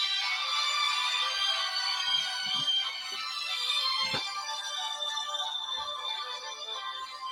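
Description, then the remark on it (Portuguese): A phone rings steadily for several seconds, a bright, tonal electronic ringtone that stays at an even, fairly loud level from start to finish, with no voices. “um telefone aqui tocou, que eu esqueci de pôr em silencioso, que eu não sei nem como é que põe.”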